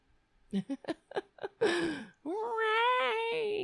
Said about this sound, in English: Do you hear him? He's not happy. He smells the cat. Do you smell Ray? Uh huh. Yes, you do. All right. That's the anti Ray meow.